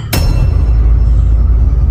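A single sharp gavel strike in a council session chamber, marking a new policy, with a hard wooden crack, followed by a low, sustained rumble and a faint high ringing tone that slowly fades. No one speaks.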